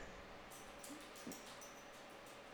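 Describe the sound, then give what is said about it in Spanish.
A small female dog scratches itself, making a quick run of soft, rhythmic rasping strokes that sound faint, with no voices over them. “disculpa si escuchan a mi perrita, se está rascando.”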